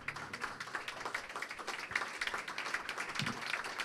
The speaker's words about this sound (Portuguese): Aplauda muito forte ao Senhor Jesus.